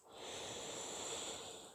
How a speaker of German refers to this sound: Ja, und da kommt schon mal so ein tiefes Atmen, wenn ich das überhaupt mache. Also wenn ich die Aufmerksamkeit dorthin richte.